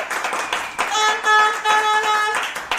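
A strong burst of audience applause called for by the host for two people: dense and fairly loud, with a steady horn-like harmonic tone sounding over the middle part before the clapping carries on briefly.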